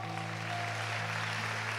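An audience applauds the Lord in a steady, dense wash of clapping that holds evenly throughout, with a sustained low hum droning underneath and no voices.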